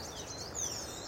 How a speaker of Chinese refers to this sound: 哇，现在有一群鸟哎，嗯。好，我们走进了阔叶林。